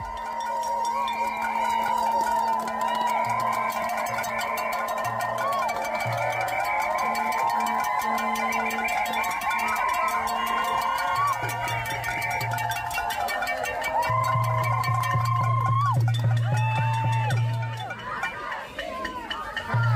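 A crowd of demonstrators cheers and shouts in a dense, continuous clamor, with metallic clinks and clanks, a sustained tone, and intermittent low honking pulses rising through the noise.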